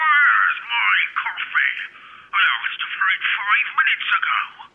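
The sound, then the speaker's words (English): A muffled, tinny voice talks steadily over a telephone line, narrow and thin as if heard through a handset, with brief pauses between phrases. “Another phone call and another set of orders.”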